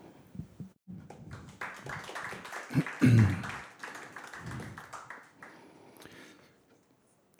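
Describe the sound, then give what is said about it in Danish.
A crowd applauds warmly for an author at an event, the clapping swelling for several seconds to a peak and then gradually thinning out. A single voice briefly says a few words near the start. “Men lige nu vil jeg ikke sige mere andet end, øh, jeg synes, vi alle sammen skal give en stor hånd til månens forfatter, og jeg glæder mig til dagens arrangement.”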